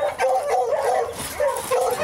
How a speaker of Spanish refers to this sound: Esos son los perros que les fuimos a dar comida a los perros con mi tata.